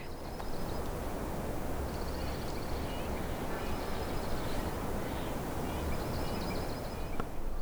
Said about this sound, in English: So there's a few birds chirping at once. What is the one that you hear the most? Um, we're hearing right now, not far away, the Oregon or the dark-eyed junco. Excuse me, Oregon um, subspecies. Um, pretty little, cute little bird.